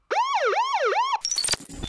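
A loud wailing siren, used as a spoiler alert effect, sweeps up and down in pitch about three times, then cuts abruptly into a brief burst of clattering, jangly electronic noise, with no one talking.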